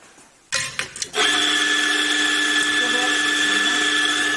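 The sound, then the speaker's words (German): A coffee grinder whirs to life after a couple of short bursts, then freshly grinds espresso beans in a steady, loud, high-pitched motor whine. “Der wird frisch gemahlen, der Kaffee.”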